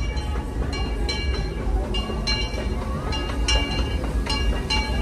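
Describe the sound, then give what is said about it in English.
A small theme park train rolls steadily into a station with a low continuous rumble, faint metallic squeals and clicks ringing out above it at intervals, with no one talking. “Hopefully you can see it rolling in there.”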